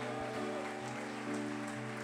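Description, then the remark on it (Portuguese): Dense, steady applause from a large crowd applauding in worship of the Lord, a continuous crackling wash of clapping over sustained musical tones, loud throughout. “Dê um brado ao Senhor e aplaude e adora neste lugar.”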